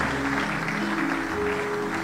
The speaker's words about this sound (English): Keep clapping until they come.